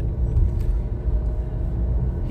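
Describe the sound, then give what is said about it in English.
Steady, deep road rumble from a moving car on the way to Giant, passing Wilbur's car, a continuous low drone with a faint hiss above it and no distinct swell. No one speaks. “As we pass Wilbur's car on the way to Giant”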